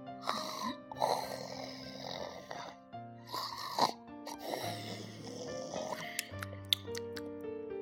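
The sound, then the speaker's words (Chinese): Deep, grunting hippo snores repeat in a steady rhythm of roughly one per second, rumbling loudly over a soft musical backing of sustained tones, with no talking. “可是睡觉的河马只管睡他的觉，还打起了呼噜。”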